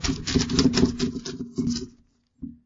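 Crinkly rustling like paper being handled during a phone call, a busy crackling stretch of about two seconds, then a pause and one short final rustle.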